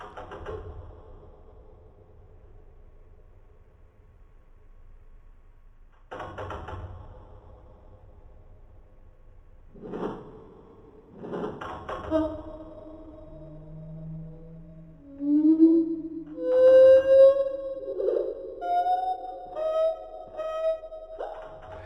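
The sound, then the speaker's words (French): From a researchers' recording filmed at 300 frames per second, a few dull, thudding taps spaced seconds apart, made by a bird tap-dancing with its feet on a perch, give way to the bird's song slowed down: low, drawn-out tonal notes with rising and falling glides, growing louder toward the end. “Dans cet enregistrement réalisé par les chercheurs, on entend le bruit des claquettes et le son du chant au ralenti.”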